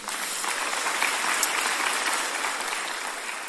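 Steady applause from an audience fills the whole stretch, a dense wash of many hands clapping at an even level with no voices standing out.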